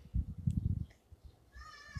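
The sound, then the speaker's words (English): A child's high-pitched scream, from kids in the street screaming about a ball, rings out briefly near the end, thin, following a stretch of low muffled rumbling and thumps from outdoors. “Anyways, to hear that little kids screaming ball.”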